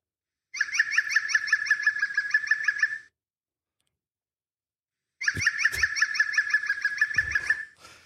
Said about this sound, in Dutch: En dan heb je ook de groene specht. Die roffelt ook nauwelijks. Maar die is wel heel erg gekend door zijn bijzondere geluid, wat wij dan het lachen noemen. Nou, luister eens hoe hartelijk hij lacht.